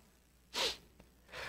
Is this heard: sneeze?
yes